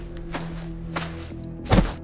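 A heavy, dull thud of a man being shoved and flung onto the ground, preceded by two softer rustling impacts, over a steady low hum of strong wind in a dark wood at night.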